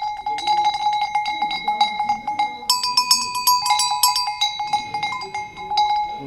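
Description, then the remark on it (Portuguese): A small metal sheep bell (chocalho) is shaken steadily and quickly, its clapper producing a bright, continuous jangling clatter with ringing overtones, fairly loud throughout. “Este é o chocalho da ovelha, que é um chocalho mais pequeno.”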